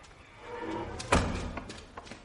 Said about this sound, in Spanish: La puerta se abre y sale una joven.